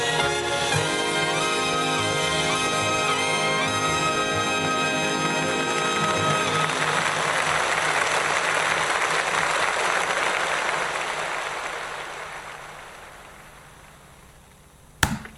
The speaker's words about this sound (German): Ich öffne die Datei mit MP3 Direct Cut und suche mir jetzt die Stelle, an der der Applaus ausgeblendet wird.